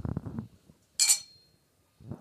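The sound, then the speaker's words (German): A single light clink of wine glasses touching in a toast with Grauburgunder, bright and brief with a short ringing tail, set between stretches of speech before and after. “Oh, das war aber ein kläglicher Anstoßer diesmal.”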